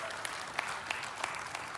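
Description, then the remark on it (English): Light, scattered golf-clap applause from a small crowd, a few sharp claps standing out over a soft, steady patter, moderately quiet and brief. “I got a golf clap on that one, so we'll keep going, all right?”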